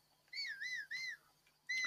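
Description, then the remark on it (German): A video game character whistles for a horse, done by holding the lowest button on the left controller: a clear two-tone whistle repeated in three quick rising-falling notes, followed by the start of another after a short pause, with no talking. “Oder ihr haltet, ihr könnt ja pfeifen.”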